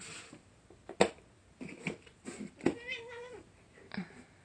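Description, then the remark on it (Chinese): A little cat meows repeatedly outside without coming in, several short calls followed by one longer, wavering high-pitched cry, with no one talking. “小猫不知道在干嘛，在外面一直喵喵叫，但是不进来。”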